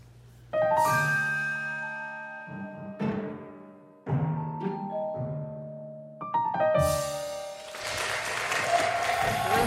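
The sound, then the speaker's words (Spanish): A run of sustained musical chords ends and applause breaks out, a dense, steady clapping that fills the last few seconds, with some musical tones still ringing beneath it. “Pues, ese aplauso, no, qué bárbaro, qué bárbaro.”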